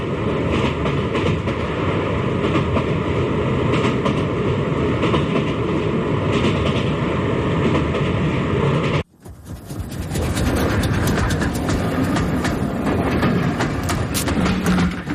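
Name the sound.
train rolling along rails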